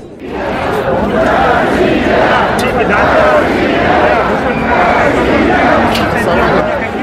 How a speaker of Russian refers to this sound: На расстоянии полусотни метров от входа на исторический фестиваль люди принялись хлопать в ладоши. Аплодисменты сменились звоном ключей. Необычное действие с азартом подхватили сотни протестующих, иногда даже не понимая причины.